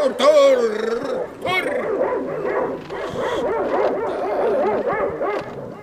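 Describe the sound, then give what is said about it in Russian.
Several hungry sled dogs rushing about in the snow bark and whimper in an excited, overlapping chorus, with yelps and whines layered over one another, continuing steadily throughout. “Что это собаки у тебя в разные стороны мечутся? Как же, батюшка, Собачки лопать хотят.”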